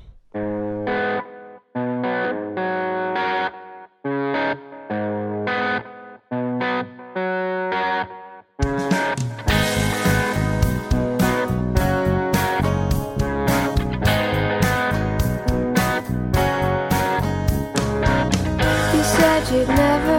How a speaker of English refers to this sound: Now let's listen to your song.